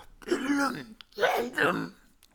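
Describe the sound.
A voice imitates Gollum's guttural, gulping smacking noise in two wet bursts, loud, with a brief pause between them.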